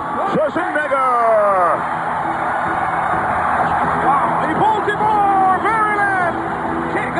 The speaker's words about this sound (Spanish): ovación para uno de los grandes. Y está disfrutando cada segundo del cariño del público, Arnold.